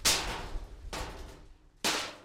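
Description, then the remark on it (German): Three loud metallic clangs at irregular intervals, each a sharp bright strike ringing out and slowly decaying, as metal sheets hung by a farmer in a tree at the edge of a maize field knock together in the wind. No voices. “Wenn der Wind die Bleche bewegt, denken die Elefanten, dass noch jemand auf dem Grundstück wach ist und gehen lieber zum Nachbarn.”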